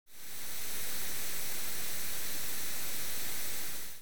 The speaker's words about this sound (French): Pour simplifier, c'est grosso modo un ensemble de fréquences audibles données de manière aléatoire mais à un même volume. Ça donne donc ça.